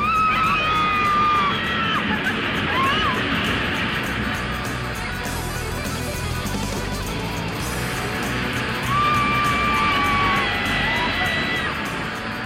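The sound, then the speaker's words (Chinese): Riders screaming and whooping on the Flying Aces roller coaster at Ferrari World, a ride with 360-degree flips and free falls, with high sustained shrieks rising in bursts over a constant loud rumble and rush of wind throughout. “这个就是你会在飞天王牌上面感受到的声音。”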